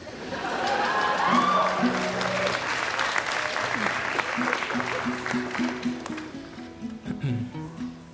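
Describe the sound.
A concert crowd applauds steadily with dense, continuous clapping, joined by scattered cheers and whoops, while a few voices talk over the ovation as it gradually thins toward the end.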